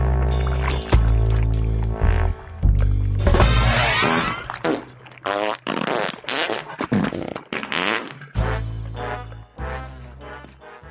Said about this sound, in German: einzelne musikalische Akzente, die werden dann einfach durch Furzgeräusche ersetzt in dem Moment